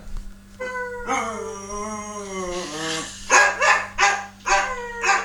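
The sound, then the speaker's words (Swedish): A person vocally imitates a dog: a drawn-out whining howl, then four quick, rhythmic barks, fairly loud, with no other talking. “Vadå, ska du köra hundljud?”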